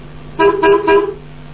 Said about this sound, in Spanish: ¿Este pito a qué coche corresponde? ¿No un camión?